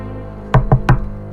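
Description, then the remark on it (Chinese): Three quick, sharp knocks on an office door in a fast, even rhythm, each a hard wooden thud. The knocking is hurried and urgent, with no voices. “这个时候，办公室的门响起了一阵急促的敲门声。”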